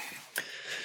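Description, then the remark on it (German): A single short sneeze bursts out briefly and fairly quietly, standing alone above a low, steady background hiss with no talking. “Gesundheit.”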